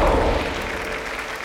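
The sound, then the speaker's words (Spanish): A crowd claps steadily, a dense wash of overlapping applause at a fairly constant loudness throughout, with no voices standing out. “Un aplauso, por favor.”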